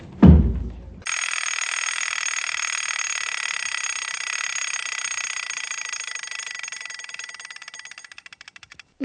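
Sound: alarm clock ringing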